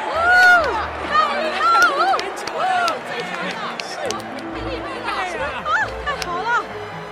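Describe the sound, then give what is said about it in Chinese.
A crowd at an archery contest roars and cheers as the winners are announced. Many voices shout and whoop over one another in a loud, steady clamor for about seven seconds, with rising and falling yells that never pause. “比赛揭晓的刹那，群众的情绪激进沸腾，疯狂的欢呼声响彻云霄。”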